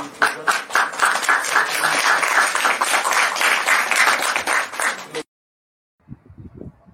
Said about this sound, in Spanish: pero bueno, espero que puedan recibirlos con un fuerte aplauso.